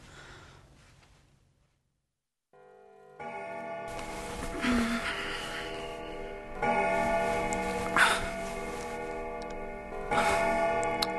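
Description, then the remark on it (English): A clock strikes the hour with several resonant, bell-like chimes spaced a few seconds apart, each ringing on and overlapping the next. A faint quiet stretch comes first, then the loud strikes. “Three, four, it's one o'clock. Five, six, seven, eight.”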